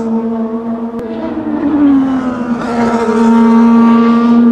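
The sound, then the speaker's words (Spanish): A race car engine roars, its pitch dipping briefly as it slows into turn 6 of a circuit, where the cars drop sharply over a bump on the inside line, then holding a steady, loud drone as the car powers through. No one speaks. “Bajan de golpe los autos.”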